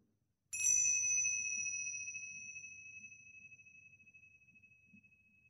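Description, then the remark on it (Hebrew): A single bell is struck once to mark the start of a guided breathing practice, giving a bright, clear chime that rings out and fades slowly over several seconds. A faint low hum sits beneath it, and no one speaks. “צלצול אחד להתחלה ושלושה לסיום.”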